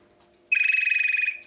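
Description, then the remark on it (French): A telephone rings once in a loud burst of rapid trilling electronic tone that lasts under a second, then stops, with near silence before and after. “téléphone, oh non, euh, téléphone, on en on ne téléphone plus. On ne téléphone plus on ne répond pas.”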